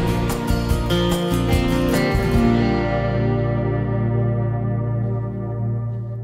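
Closing bars of a French pop song released in 2008: full band with steady drum hits for a couple of seconds, then sustained guitar and keyboard chords ringing out and slowly fading, no voices.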